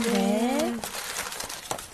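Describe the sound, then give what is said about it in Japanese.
A small snack pouch with an oni face drawn on it, a Setsubun edition of a rice-cracker snack with beans inside, crinkles and crackles in irregular bursts as it is opened, following a brief sustained voiced sound at the start; the rustling stays fairly steady and moderately loud. “ここにあるのがなんと鬼の顔が書いてある小さな包みなんですよ、うん、かわいい2人にね1個ずつこれね何かなと思って開けるとですね、包まれて節分節分柿山柿山節分バージョンじゃないですかこれはちゃんと豆も入ってるってすごい”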